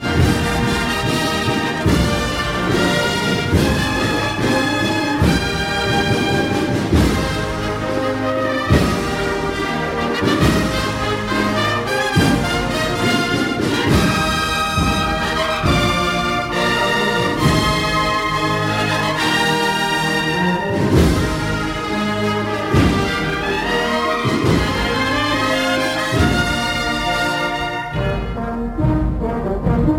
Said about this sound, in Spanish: la marcha invitada fue el estreno de la redención de este pasado sábado coincidiendo con el estreno del nuevo uniforme. Se llama Danos la redención. Es obra de Alberto Caballero y suena así.